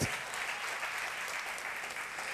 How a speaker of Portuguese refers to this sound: Cadê o glória a Deus, gente? Cadê o aplauso?